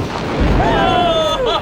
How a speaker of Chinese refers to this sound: 让我们来欣赏真正的大爆炸吧！